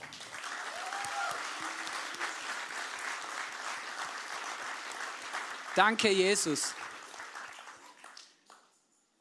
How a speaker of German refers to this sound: Lass uns doch diesem Jesus mal einen fetten Applaus geben.